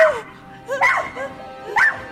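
A puppy cries out for help in a few high, wavering yelps and whimpers, fairly loud, with short pauses between the bursts.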